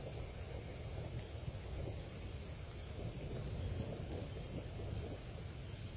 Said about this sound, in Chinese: 雨真大，下的屋顶上起了烟，大雨点落在天井的积水里，砸出一个一个水泡。